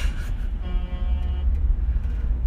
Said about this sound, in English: oh, someone got honked at.